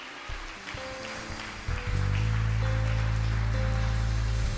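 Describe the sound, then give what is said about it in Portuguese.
An audience applauds in praise to the Lord with steady, dense clapping that fills the whole clip, and a sustained low keyboard chord swells in underneath about halfway through. “Uma salva de palmas ao Senhor, irmãos.”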